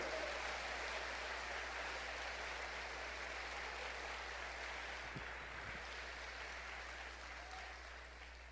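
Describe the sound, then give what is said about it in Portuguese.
An audience gives applause to the Lord, clapping together in a dense, steady wash that holds for several seconds without pause, then eases off slightly toward the end. No voices come through. “Quem crer dá um aplauso ao Senhor, porque tem certeza que a sua vida não é em vão.”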